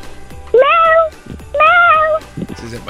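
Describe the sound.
A child's voice imitates a cat, giving two drawn-out, rising-and-falling meows about a second apart, loud, with a short bit of softer vocal sound after.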